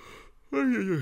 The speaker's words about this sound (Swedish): Lite gäspig här.